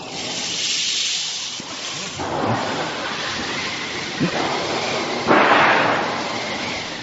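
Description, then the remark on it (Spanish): An imitated thunderstorm made with sound effects: a steady, hissing wash of rain and wind with several rumbling thunder crashes, the loudest near the end, and no voices. The wind comes from a special wooden machine, the thunder from a metal sheet, the rain from rice moved in a wooden tube. “pero de pronto viene una tormenta con lluvia y viento fuerte.”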